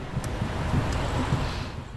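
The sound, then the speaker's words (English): Steady wind rushes over the microphone with a low rumble, and soft surf washes, a continuous outdoor sound at the beach at English Bay with no voices. “A lot of people out on the dock out there as well, but a lot of people just enjoying the beach and enjoying a little bit of the breeze.”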